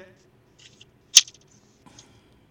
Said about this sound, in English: Sorry, there, there's a little bit of a delay. Let me see if I can't take my headset off. One second.